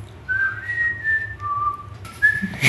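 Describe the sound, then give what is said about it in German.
A person whistles a short, simple film melody of a few sustained notes, clear, stepping up and down in pitch with a soft background hum and no talking. “Jetzt pfeift nur jeder von euch den Hunger Games Film.”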